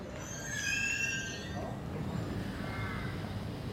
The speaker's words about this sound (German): Wir sind hier gerade in der Nähe von der S-Bahn Bahrenfeld und hier ist eine kleine Saatkrähenkolonie. Ich bin noch nicht so weit mit dem Durchzählen, aber so knapp 20 Nester sind das hier, die seit ein paar Jahren sind und man hört sie oben rufen.